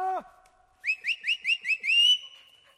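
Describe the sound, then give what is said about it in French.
A brief tonal call, then a quick series of five rising whistle notes ending in a longer held whistle, calling dogs back. Fairly loud, no talking. “Allez, rappelez les chiens.”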